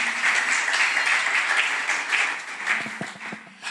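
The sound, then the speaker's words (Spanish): A church audience breaks into sustained applause for God during a sermon, a dense crackle of many hands clapping steadily, with a few scattered voices rising toward the end as the clapping thins. “Dele un aplauso al rey, aleluya.”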